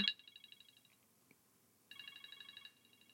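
A timer alarm goes off in rapid, high-pitched electronic beeps, sounding in two short bursts separated by a brief pause, with no voices.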